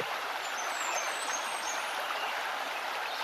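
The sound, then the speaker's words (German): A babbling brook flows steadily throughout, a continuous bright rush and trickle of water at a moderate level, with no voices or other sounds. “Siehe, wie es wirbelt und eintaucht und dem Strom des Wassers hinunterfolgt.”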